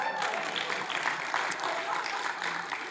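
A crowd applauds their youth pastor steadily, a dense, continuous patter of many hands clapping at an even loudness for the full few seconds.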